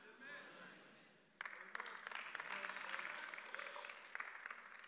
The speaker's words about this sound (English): Some of you are clapping nervously, I can see that.